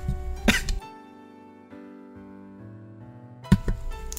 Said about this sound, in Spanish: Ah, lo bueno que tiene un botón para silenciarte. Porque me dio un ataque de tos.